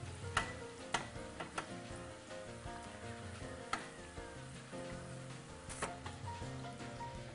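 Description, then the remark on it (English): Chicken frying in hot oil, a steady sizzle broken by sharp, irregular pops and crackles, with no one speaking. “Every time I go to the South, my aunt makes me fried chicken, and you know it takes so long and frying is such a long process, especially when you do it outside of like a professional deep fryer.”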